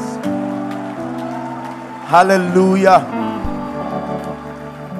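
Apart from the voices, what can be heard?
audience clapping hands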